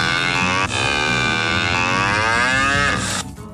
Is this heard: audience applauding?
no